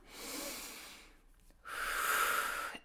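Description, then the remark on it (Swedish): A long, airy breath in through the nose, then a brief pause, followed by a second, stronger and hissier breath swelling. No talking, just steady breathing sounds. “Andas så ska det, du se att det går över. Det här brukar jag alltid säga till mina patienter. In genom näsan.”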